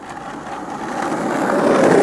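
Skateboard wheels rolling over pavement as a young woman rides a skateboard with a panther on it past a café, a steady gritty rumble that grows gradually louder over two seconds, with no voices.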